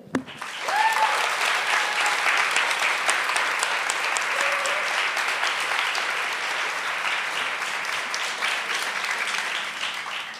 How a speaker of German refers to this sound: Ja, also herzlich willkommen und einen Applaus für unser Panel.